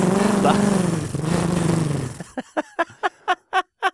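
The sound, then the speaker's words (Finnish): A voice imitates a motorcycle engine, first a steady rumbling drone with rising and falling pitch, then a series of sharp, rhythmic revving bursts, fairly loud. “Rajoitusalueella 30 kilometriä tunnissa ja pulu paineli tällä motskarilla 45 kilsaa tunnissa.”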